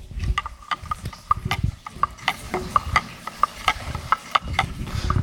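A woman stirs milk in a cup with a spoon, clinking steadily against the sides in a quick, irregular rhythm of bright taps, with a low background rumble.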